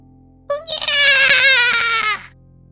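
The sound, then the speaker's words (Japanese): A newborn baby boy, just delivered with a midwife's help, lets out one loud, sustained wail lasting nearly two seconds, rising sharply at the start and breaking off abruptly, with a faint low hum underneath. “元気な男の赤ちゃんが生まれました。”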